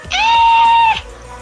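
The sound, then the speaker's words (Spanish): A voice lets out one loud, high-pitched, excited scream, held steady for nearly a second before cutting off abruptly, reenacting a shriek of excitement when a favorite band released a new song. “grité, te lo juro.”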